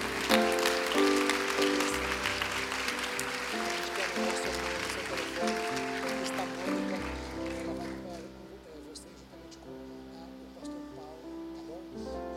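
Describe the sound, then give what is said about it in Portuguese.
An audience applauds the Lord after a prayer in a Christian service, in a dense, steady wash of clapping that gradually thins and fades near the end, over sustained musical tones and some voices. “Será que você pode aplaudir ao Senhor?”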